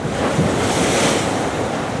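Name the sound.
waves and wind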